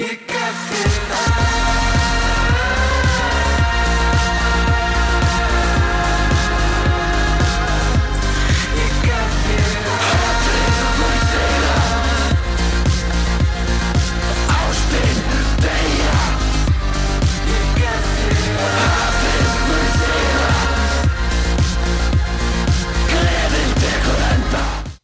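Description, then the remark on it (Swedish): Loud, dense heavy industrial synth music plays throughout, with pounding bass pulses on a steady driving beat and harsh layered tones filling the mix, no talking over it. “är, eh, det är tung industrisynt.”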